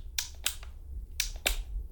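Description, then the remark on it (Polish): Sharp mechanical clicks from a portable radio's clicking volume switch, coming in two quick pairs with a short pause between, crisp and bright over a low steady hum, with no one speaking. “klikającym włącznikiem.”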